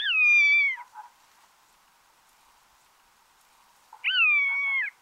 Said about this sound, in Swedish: Det är inte, kanske inte direkt en sång, men det är ändå ett kontaktläte till andra ormvråkar. Så att det kanske inte är fokus på jakt när man hör det, utan att det är någon form av kommunikation som försiggår uppe i himlen.